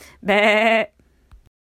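A single loud, wavering sheep bleat, clear, lasting about half a second, followed by a couple of faint soft knocks before silence.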